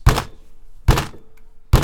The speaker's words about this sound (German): Okay, ich mache jetzt ein bisschen Salz in mein Wasser und schlag's jetzt dreimal auf ein Stück Holz. auf, einen Tisch. Holz.